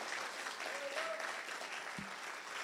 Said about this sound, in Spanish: Vamos, denle un aplauso fuerte a Jesús si usted lo cree.